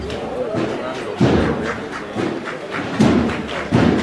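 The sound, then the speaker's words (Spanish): A capataz's ceremonial hammer, tied with a black mourning crepe, knocks on the float of the 'misterio de los panaderos' procession in Calle Jesús del Gran Poder: four dull, heavy thuds at uneven intervals, each loud and abrupt, over a steady murmur of crowd voices. “Lleva un crespón negro, el martillo.”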